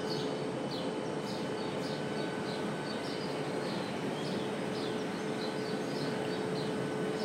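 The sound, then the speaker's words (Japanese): Repeated short, high chirps from birds ring out over a steady outdoor background hum in Hawaii on a warm, sunny day with a constant light breeze, coming in loose clusters throughout, with no one talking. “すごい鳥が鳴いてますね”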